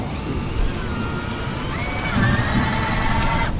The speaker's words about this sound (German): Es kräht der Hahn, es lärmt der Schrauber. Das Geräusch des Tages hier wird gebaut.